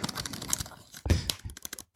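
Rapid, uneven clacking of keys on a mechanical keyboard, moderately loud, with a heavier thunk partway through and no voices over it.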